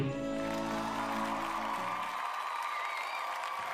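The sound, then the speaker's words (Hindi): Thunderous applause from a crowd after a speech ends, a dense, steady wash of many hands clapping at an even loudness throughout, with a low humming tone underneath that fades out about halfway. “अपनी बात खत्म करने के बाद तालियों की गड़गड़ाहट के बीच विधान माइक अपने पिता को दे देता है”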